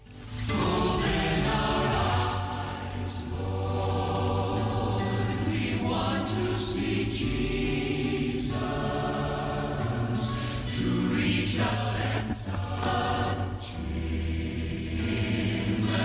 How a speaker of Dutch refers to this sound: Ja, dat was in Kaapstad. We luisteren naar een mooie medley.